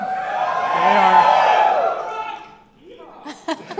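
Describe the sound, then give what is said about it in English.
A rowdy burst of drunken shouting and whooping from a group of people, loud and jumbled for a couple of seconds before fading, followed by someone starting to talk. “Uh, no, but these people, if you're listening in your car, just know that will be interrupted by the shouts of drunkards for the next hour to 90 minutes.”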